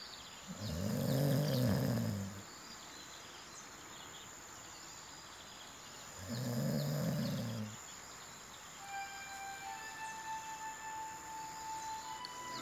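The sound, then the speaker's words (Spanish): Two deep, rumbling roars from a large wild beast, each lasting about two seconds and spaced several seconds apart, loud and close, followed by a faint high-pitched whine in the background. “Si no me engaño, Oso oh, salvaje es aquel y el miedo viene con él.”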